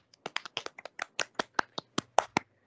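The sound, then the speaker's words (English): A quick burst of about fifteen hand claps in a fast, fairly even rhythm, crisp, with no one talking over them, clapped as a special mention for creator Anthony Zuiker. “Ooh, let me clap real quick.”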